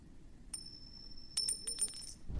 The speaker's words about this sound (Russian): И знаешь, и ты понимаешь, уже достаточно много монет выкатилось, там около 50. И он еще две монеты выбрасывает.